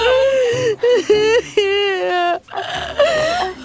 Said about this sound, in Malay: ambil, ambil tisu ni. Jangan nangis, eh. Buruk tak nangis. Jangan nangis.